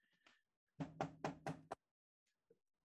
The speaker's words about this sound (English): I I always knock on somebody's door the same amount of times.